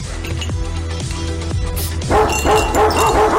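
A dog barks repeatedly and loudly, the barks coming faster and more insistently in the second half over a steady low background hum.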